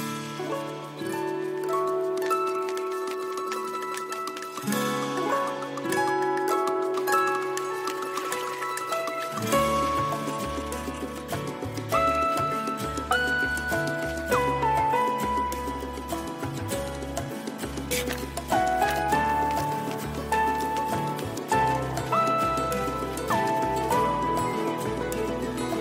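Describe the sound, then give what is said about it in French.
Bright, gentle video game soundtrack music plays alone, a melodic line over soft sustained tones, with a bouncy bass and light percussion joining partway through and continuing steadily. “Elle est super cool cette OST.”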